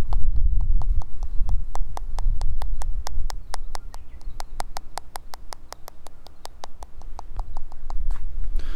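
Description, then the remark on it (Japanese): Steady, quick tapping on a smartphone, about thirty crisp taps in an even rhythm over a low background rumble, with no talking; the phone is tapped on one side, then moved to the other side to test left-right stereo recording. “あとはステレオで録音なので左右の音の流れはいちょっと今できるかな今片側でスマホトントンやって逆に持ってくんで”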